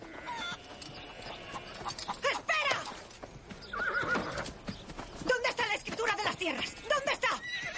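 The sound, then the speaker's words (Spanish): A horse whinnies loudly in rising, wavering bursts while hooves clatter and stamp in an uneven rhythm throughout, with a second whinny breaking out midway, as a man comes down the outside stairs of his house and mounts the horse. “Ralph baja las escaleras exteriores de su casa y monta en su caballo.”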